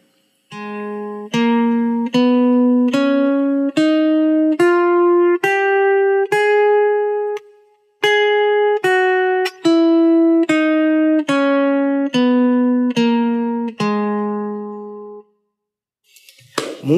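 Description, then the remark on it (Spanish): A G-sharp melodic minor scale (G-sharp, A-sharp, B, C-sharp, D-sharp, E-sharp, F-double-sharp, G-sharp) played one even, sustained note at a time, rising eight steps, pausing briefly, then descending eight steps, with a bright, steady tone and no talking. “Muy bien, ahora continuamos con la escala de sol sostenido menor melódica, que es así.”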